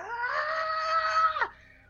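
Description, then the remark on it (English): A single sustained, strained vocal scream held steady for over a second before dropping off abruptly, a voice imitating an anime-style power-up yell, loud. “He is just gonna like scream like DBZ scream like”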